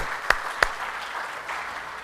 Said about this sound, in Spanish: Denle un fuerte aplauso a nuestro